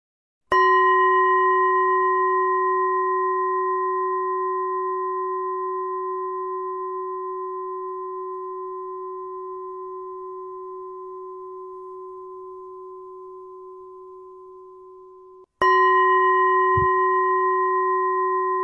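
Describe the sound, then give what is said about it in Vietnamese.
A bell is struck once and rings with a long, steady tone that fades slowly over about fifteen seconds, then is struck a second time; no one speaks. “đây na là tiếng chuông”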